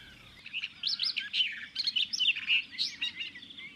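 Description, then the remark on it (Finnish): A barred warbler sings its territorial song, a fast, scratchy run of high chattering notes and short warbled phrases delivered continuously without pauses, with no voices present. “Selkeää reviirilaulua.”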